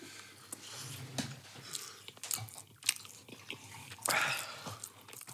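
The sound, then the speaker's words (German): Wet chewing of two meatballs, with irregular squelching bites and smacks continuing steadily for several seconds, no talking over it. “Oh, zwei Frikadellen sind aber auch viel zu kauen.”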